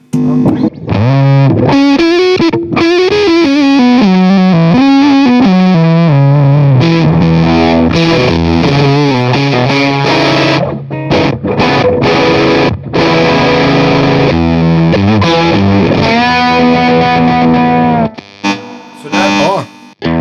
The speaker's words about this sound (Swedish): Men eh, sådär brukar det ju inte en fuss låta genom en Fender-kombo i alla fall. Det brukar ju, brukar ju sticka iväg ja.